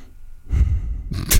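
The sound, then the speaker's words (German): A loud nasal snort: a rough, forceful exhale through the nose followed by a second sharper puff of breath, with no talking around it. “Das klang jetzt bestimmt super, der Schnaufer.”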